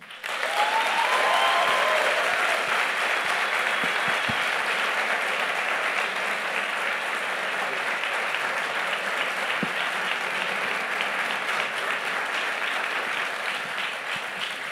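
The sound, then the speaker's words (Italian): An audience applauds steadily for the whole stretch to welcome the evening's guest, a dense, even wash of many hands clapping, with a few scattered whoops near the start. “Signore e signori, per favore un grande applauso per Marco Cappato.”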